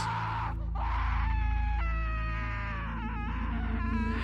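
Eerie, drawn-out wailing screams coming from the walls of a home, with wavering, rising and falling pitch, continuous for several seconds over a low droning background. No one speaks.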